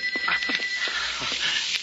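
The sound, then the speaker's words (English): A telephone rings with a steady, shrill, high-pitched tone that runs unbroken for about two seconds over a bed of hiss and faint muffled clatter. “But I can't just let it ring.”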